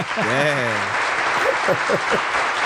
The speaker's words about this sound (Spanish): Bien, un aplauso.